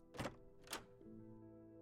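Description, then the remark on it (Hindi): Two solid thunks a half-second apart, a gate latch and gate clunking open, followed by a faint low hum with no talking. “दरवाजे की घंटी बजती है गेट खुलता है”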